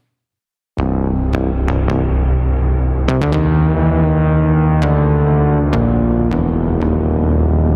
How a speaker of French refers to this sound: Mettre de la reverb sur une basse synthétique comme la petite démo que je viens de faire juste avant, ça, ça donne un côté différent.